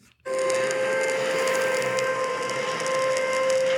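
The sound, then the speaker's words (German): An air raid siren from a war sound-effects record blares at a steady, unwavering pitch, starting abruptly and holding loud and continuous with a hissy, crackly background, like an old record. No one speaks. “Der Bombenalarm wahrscheinlich.”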